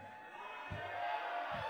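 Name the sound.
audience cheering and whooping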